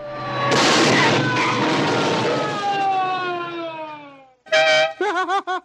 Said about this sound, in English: the 20th Century Fox logo stutters a bit and is interrupted by a police chase. An animated race car is pursued by police, colliding with the logo's searchlights and destroying the logo. The skit is punctuated with Burt Reynolds' signature laugh.